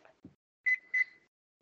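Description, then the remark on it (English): Two short, high electronic beeps in quick succession as a microwave timer is set to 13 minutes for waffles, following a soft thump; no one speaks. “Okay, did you want to put the 13 minutes on the microwave or me?”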